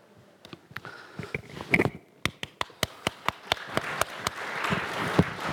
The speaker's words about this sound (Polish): Uważam, że trzeba klaskać, bo tak dawno tego nie było słychać na żywo.